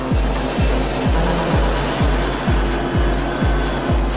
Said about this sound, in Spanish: Apoyados por estos camiones con aspiradoras gigantes, los trabajadores retiran todo lo que obstruye el drenaje y que impide que el agua fluya.